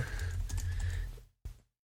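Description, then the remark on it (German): Rapid clicking of keys on a computer keyboard as someone googles a song title, fairly loud over a low hum, stopping abruptly with one last faint tap before silence. “Ah, ich habe mich wahrscheinlich gemutet, weil ich getippt habe.”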